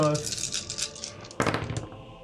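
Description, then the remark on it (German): Six twelve-sided dice, rolled for damage, rattle and clatter into a dice tray, a steady flurry of light clicks followed by a sharper burst of tumbling as they come to rest. “alle in der Würfelschale, ja, Leute.”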